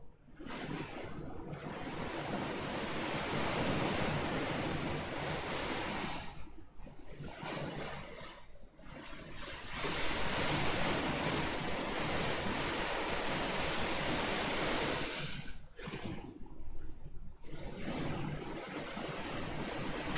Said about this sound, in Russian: На самом деле я привыкший. Это вот такая вот звукоизоляция здесь. Просто у нас никогда не было стрима непосредственно во время дождя. Он уже был такой, это сильнее. Это на самом деле не сильно большой шум. Вот. А, бывало и посильнее.